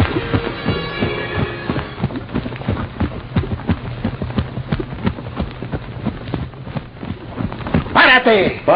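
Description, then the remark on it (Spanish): Horse hooves clip-clop in a steady, fairly quick rhythm as a rider is stopped and ordered off the horse, with a voice briefly at the start and a sharp shout cutting in near the end. “¡Abájate del caballo!”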